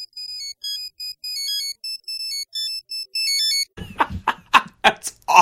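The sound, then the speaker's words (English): A high-pitched electronic phone ringtone, copied from a character's ringtone in a TV show, plays a quick melody of short, beeping tones for several seconds, then cuts off as bursts of laughter break in. “I went through the work of actually making my ringtone several years ago be Batmanuel's ringtone in the show that he has”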